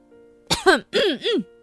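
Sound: forceful throat clearing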